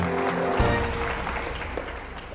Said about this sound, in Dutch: Luid applaus en gelach.